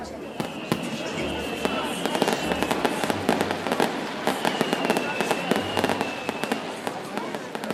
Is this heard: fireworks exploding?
yes